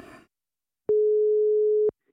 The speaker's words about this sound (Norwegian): Ok, da ringer vi.